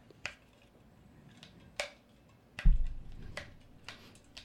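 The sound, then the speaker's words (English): Several sharp plastic snaps and clicks as a water bottle lid is flipped open and shut, spaced irregularly, fairly loud, with a duller thump partway through and no talking. “to hear for the last five minutes of this is you snapping that top”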